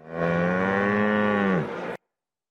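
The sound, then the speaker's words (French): A very rare Bordelaise cow, brought by a young breeder in France, lets out a single long, loud moo lasting nearly two seconds, its steady pitch dropping at the end before abrupt silence. “Preuve en est, le jeune éleveur est venu accompagner de rebelles, une vache bordelaise très rare, une autre façon de sauvegarder cette diversité qui fait la richesse de l'agriculture française.”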